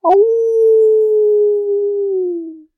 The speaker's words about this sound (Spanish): A lo lejos se podía oír a algún lobo aullar.